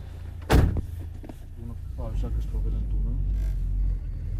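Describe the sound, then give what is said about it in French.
A car door slams shut with a single heavy thud as people get into the car to set off on a trip, followed by people talking inside the vehicle over a steady low rumble. “Ben, on va partir pour cette mission, on va monter dans la voiture.”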